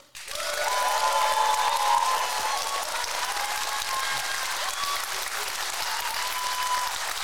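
A crowd claps steadily for several seconds to vote for which story they want to hear, a dense, continuous patter of applause that starts abruptly and holds at a fairly even loudness, with no talking over it.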